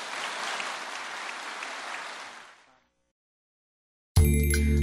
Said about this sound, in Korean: 우리 하나님께 감사의 박수 올려 돌리십시오.